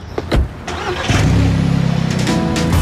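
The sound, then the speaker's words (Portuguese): A car engine cranks with a few quick bursts, then catches and settles into a steady, rhythmic idle rumble, fairly loud, with no voices, as the car is started to go for a drive. “Bora, vamos dar um rolé.”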